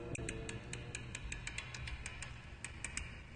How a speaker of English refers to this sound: is 3 a.m. at the Gotham First National Bank, and the clicking noises you hear are the tumblers of a lock magnified many times by intricate amplification equipment.